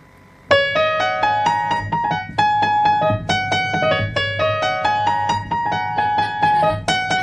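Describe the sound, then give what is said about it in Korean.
Piano keys pounded with fists in loud, clustered chords, struck repeatedly in an uneven rhythm with ringing sustain between hits, played without any talking. “손가락으로 하는 게 이게 제가 주먹으로 지금 타법을 연주했거든요.”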